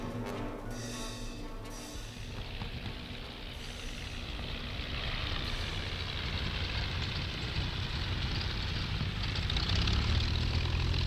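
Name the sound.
airplane engine in flight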